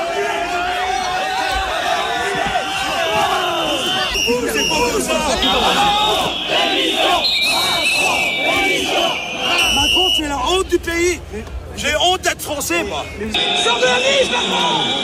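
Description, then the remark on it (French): A loud, dense crowd at the inauguration of the Salon de l'agriculture shouts insults and jeers angrily at President Emmanuel Macron in the aisles, voices overlapping in a continuous roar, with shrill whistles cutting through repeatedly across the whole stretch. “Voilà des sifflets, des, insultes et de nombreuses scènes d'une rare violence.”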